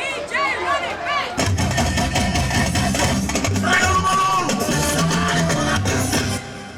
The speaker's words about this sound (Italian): Già dall'interno del giardino sentiamo crescere un rumore di fondo sempre più intenso, una base grave e costante, con assoli di migliaia di clacson e urla, fischietti, canti.